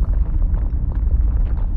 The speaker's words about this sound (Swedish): Det knäppte och mullrade i väggarna, nästan som att det talade till oss. Hörde du det där? frågade jag.